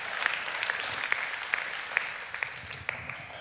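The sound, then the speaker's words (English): An audience claps steadily at moderate volume, a dense wash of clapping with a few sharper individual claps standing out. No one speaks. “You can clap right there if you need to.”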